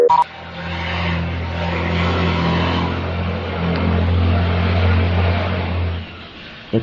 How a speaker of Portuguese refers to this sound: Passou um caminhão misturado com um carro de Fórmula 1 aqui na minha